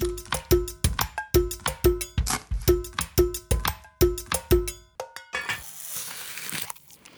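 Someone bites and chews an apple: a quick, steady run of crisp, loud crunches with a slightly ringing snap to each, then a longer rough, crackly crunching at the end. No one speaks.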